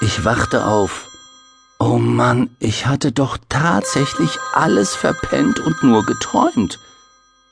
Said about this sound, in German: Na klar, das Telefon. Langsam fand ich zurück in die Wirklichkeit. Das war das Geräusch des ultra-coolen Black Shadow Phones, ein Spezialphone